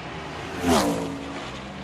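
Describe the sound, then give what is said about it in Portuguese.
A Ferrari sports car engine roars past in a single quick pass, its pitch swooping downward as it swells loud and then fades, with steady background noise and no talking. “a gente pode estar gravando o podcast dentro de um carro, numa Ferrari.”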